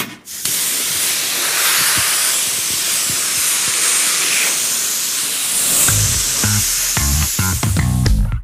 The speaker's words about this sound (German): Jetzt waschen wir noch das Auto zu Ende.